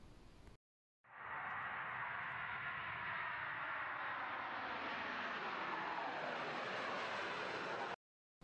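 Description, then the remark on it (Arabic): A loud, steady roar of an airplane engine fills about seven seconds, its broad rushing tone shifting slightly as the aircraft approaches to land, with no voices. “ما هي إلا دقائق لهبوط الطائرة، حماس غامر لبدء تجارب وذكريات جديده”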